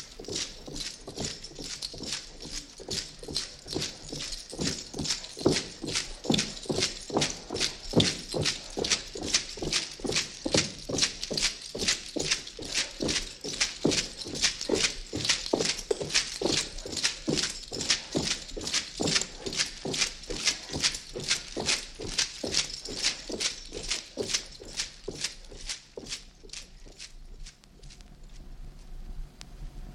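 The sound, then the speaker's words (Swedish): Steady hoof clops from horses moving, a fast, even rhythm of sharp knocks that keeps going for most of the half minute before thinning out near the end. No one speaks. “Jag får lite så här ryckt borste, tränsel och grimma-känsla. Är det stalligt?”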